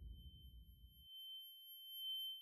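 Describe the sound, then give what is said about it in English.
A steady, piercing high-pitched ringing tone sustains throughout, like tinnitus after a blast, with a low muffled rumble fading out in the first second. “After you hear the explosion, and then there's that ringing in the ear.”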